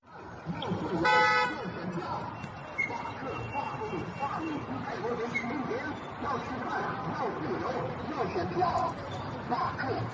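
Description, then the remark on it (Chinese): Slogans shouted through a loudspeaker at Sitong Bridge in Beijing on the 13th, where banners were hung and smoke was burned, heard clearly over a steady roar of heavy road traffic, with a brief car horn toot early on and the shouting continuing throughout. “这是网上盛传十三号在北京四通桥高挂横幅、燃烟以及以扩音器大声喊出的口号，即便交通繁忙，桥下路下的口号声清晰可辨。”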